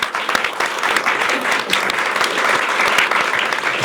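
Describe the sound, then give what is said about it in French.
Steady audience applause for a guest being introduced on a show: a dense wash of many hands clapping at an even, fairly loud level throughout, with no voices heard over it. “Donc Stella Kamga, on peut l'applaudir.”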